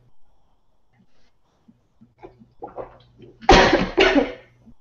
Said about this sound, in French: Pardon. Excusez-moi les oreilles si jamais je vous ai toussé dans, les oreilles.